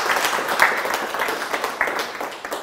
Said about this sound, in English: Uh, give him a round of applause, everyone.